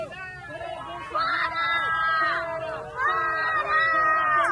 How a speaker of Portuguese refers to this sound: Que fala que o Bolsonaro foi vaiado em vitória do Espírito Santo e que no avião houve uma manifestação gritando genocida, eh, fora Bolsonaro e não sei o quê. E temos o vídeo, realmente o povo gritou, por favor.